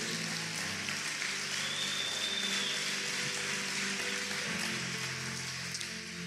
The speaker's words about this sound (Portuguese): Vamos lá, se for para aplaudir, aplaude direito.